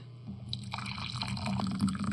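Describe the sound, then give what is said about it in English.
Hot tea pouring into a cup, a steady splashing trickle whose pitch rises slightly as the cup fills, with no one speaking. “Here's your tea.”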